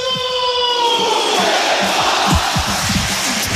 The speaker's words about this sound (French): Le pilou-pilou euh, qui résonne fort, très fort même dans les tribunes du, du Stade Mayol. On va le laisser quelques instants.